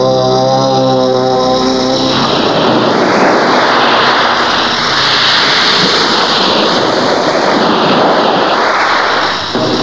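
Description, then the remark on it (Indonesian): Ocean waves wash onto a beach in a loud, continuous roar of surf, with a low humming drone briefly audible at the start. No one speaks. “Sedangkan Dewi Maut yang telah mereka bicarakan itu kini sudah sampai di tepi pantai.”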